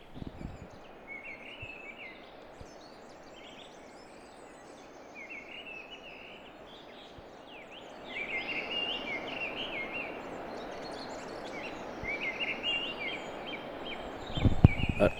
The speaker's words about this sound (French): Alors que là, le merle, c'est un virtuose, c'est un chanteur d'opéra.